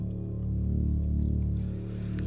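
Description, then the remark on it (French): A dense, steady chorus of frogs and crickets hums continuously at dusk, growing as the light fades, with a thin high trill threading through for a moment. No voices are heard. “Magpie peut entendre le cœur de grillons et de grenouilles s'intensifier à mesure que la lumière diminue”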